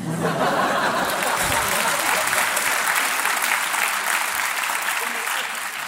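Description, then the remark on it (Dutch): A live audience applauds steadily, a dense wash of clapping that holds for the full six seconds, with a few faint chuckles mixed in and a slight fade near the end. “merci voor de applaus”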